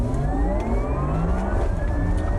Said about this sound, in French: Et là, cette accélération, oh là là, incroyable, incroyable accélération on est vraiment complètement plaqué au siège. Là, c'est vraiment, c'est d'une folie euh, euh, complètement démesurée.